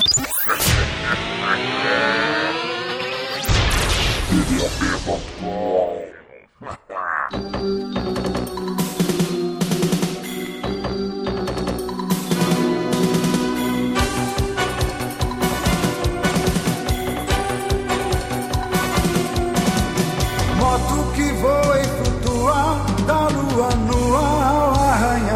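A loud song intro plays: a sustained opening with a rising, swooping swell, then full-band music kicks in with driving percussion, sharp hits and bright harmonic lines, steady and energetic to the end.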